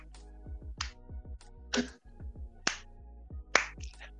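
Four sharp, crisp claps land about a second apart, evenly spaced, over a steady low musical backing with repeating falling bass tones.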